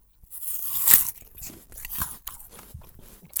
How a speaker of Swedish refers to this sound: Vissa har ju väldigt stora, alltså starkt obehag också av att, att lyssna på när någon annan tuggar.